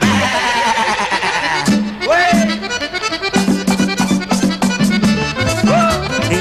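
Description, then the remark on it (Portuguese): Goats bleat loudly and repeatedly, several wavering, nasal cries overlapping in a busy stretch, with a steady low drone and quick clicking sounds running underneath. “se casa la chiva blanca y el chivo prieto con y todos los invitados van a berrear.”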